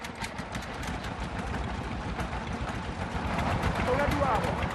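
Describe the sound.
Generators run at small family-operated oil wells where air pressure is used to pump the oil up. They make a steady low rumbling drone with a busy mechanical rattle, growing slightly louder toward the end, while voices talk over it.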